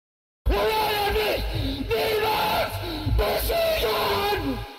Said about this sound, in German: Doch wieder mal zerriss ein Schrei die Idylle.